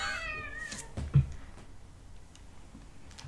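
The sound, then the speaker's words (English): A cat named Arwen, the oldest, lets out one drawn-out meow whose pitch slides downward, followed by a low thump and then near-quiet with a few faint clicks. No one speaks. “Arwen's the oldest. Arwen is the oldest. Yep. A fuzzy old fart.”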